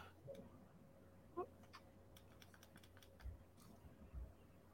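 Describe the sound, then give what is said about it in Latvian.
A short series of five light, crisp clicks as buttons are pressed on a small sterilizer device, spaced irregularly over a quiet background hum. “Tad 5 klikšķi tāpat tās viss notiekās.”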